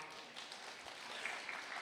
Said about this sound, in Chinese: 大家觉得是不是这个逻辑？觉得是的话，来点掌声啊！